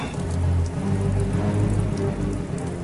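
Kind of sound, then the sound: nature, hailstorm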